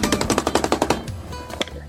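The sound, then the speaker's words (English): A paintbrush, washed in odorless thinner, being beaten to shake off the thinner: a fast, steady burst of about ten sharp, loud thwacks in the first second, then quieter scattered knocks trailing off. “We wash our brushes with odorless thinner, shake them off, and just beat the devil out of them.”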